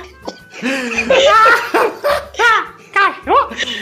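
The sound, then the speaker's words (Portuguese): Dogs bark repeatedly in short, high-pitched yelping bursts, several overlapping in quick irregular succession, fairly loud for a few seconds. “Os cachorros, hein?”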